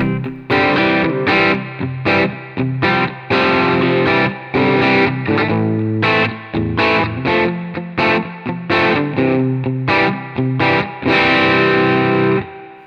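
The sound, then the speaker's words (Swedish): An electric guitar through an amp with the gain raised, chords starting to break up with light crunchy distortion, played in repeated rhythmic strums with short gaps, loud and without any talking. “Och ni hör att det spricker lite grann, men nu ska vi börja ge oss in i den här sweet spoten.”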